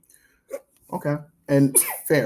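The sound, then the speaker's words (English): A quick, sharp sneeze bursts out, set among bits of conversation as people keep talking around it. “Bless you. My God. Bless you.”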